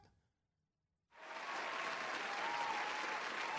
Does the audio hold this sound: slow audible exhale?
no